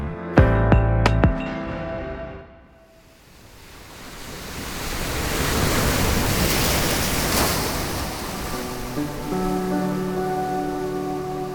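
A broad, hissing wash of ocean surf swells up and breaks over several seconds, loud. Soft musical tones sound briefly at the start and return faintly beneath the surf toward the end.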